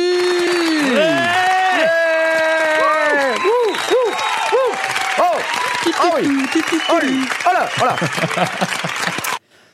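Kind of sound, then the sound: crowd, audience applause and cheering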